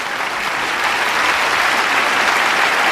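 A large theatre audience at the Teatro de la Zarzuela in Madrid applauds steadily at the 26 February 1931 premiere of Rafael Alberti's play El hombre deshabitado, a dense, continuous roar of clapping at full strength from start to finish, with shouts for the author to come out.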